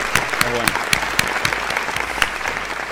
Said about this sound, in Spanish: La actriz trans Zulma Lovato le ganó un juicio a Crónica Televisión, chiques. Sí, es bueno, Aplausos.